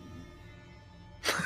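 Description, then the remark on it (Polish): After a second of near silence, a sleeping dog lets out one short, breathy snort: a sudden noisy burst of air at the very end. “to mój pies.”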